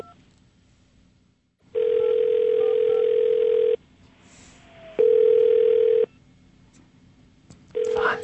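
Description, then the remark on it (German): A telephone ringback tone on a call to George Bush and Al Gore, repeating over a quiet phone line: a steady, single-pitched electronic beep sounding in a long burst, then a shorter one, and a third beginning just as it ends. “Aber eigentlich ist doch schon mal toll, dass wir jetzt ein Freizeichen haben bei George Bush und bei Al Gore.”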